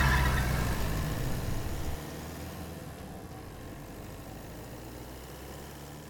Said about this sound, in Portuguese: Eu fiquei com a cabeça baixada, olhando na direção, enquanto o motor do carro pegou, eu consegui fazer o carro disparar noite adentro.